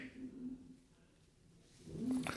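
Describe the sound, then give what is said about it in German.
Two muffled, faint barks from a dog standing at the door, one early and one near the end, separated by a quiet pause, somewhat drawn out rather than sharp. “der bellt die ganze Zeit. Der, bellt, der steht vor der Tür und bellt mir ins Ohr”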